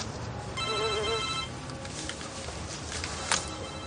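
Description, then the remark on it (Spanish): A mobile phone ringtone trills briefly with a bright, warbling electronic melody, heard by a police officer, over a steady background hum; the ringing fades after about a second, and no one speaks. “Un agente de policía se sorprende al oír un teléfono móvil.”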